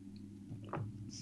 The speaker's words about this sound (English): Remember that at any point you can ask yourself, What is it I need right now in this moment? For me, it's a sip of my warm tea to help my throat as I'm recording this podcast.